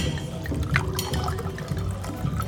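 Wine pours steadily into a glass at the Norwegian parliament finance committee's annual dinner, a continuous splashing gurgle lasting a couple of seconds with no voices present.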